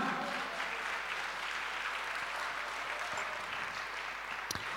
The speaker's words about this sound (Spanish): Dale un aplauso a Cristo, amado hermano.